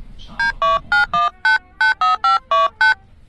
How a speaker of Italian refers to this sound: fammi fare una chiamata importante. Prendo il cellulare. Ecco, Natalie Berlin faccio il numero